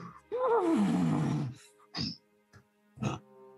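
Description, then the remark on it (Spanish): A person imitates a startled horse shying and stepping back several paces, with a long, loud, descending whinny-like cry, followed by a few short breathy snorts and grunts spaced apart. “Y el caballo repara y te, se, da varios pasos hacia atrás y hace.”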